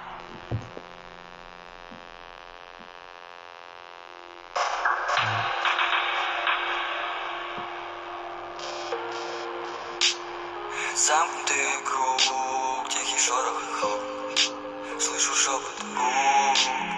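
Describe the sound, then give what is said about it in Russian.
A low electrical hum sits alone for a few seconds, then an outro music track kicks in, building with bright layered tones and what sounds like a vocal line over the steady hum. “я ставлю аутро”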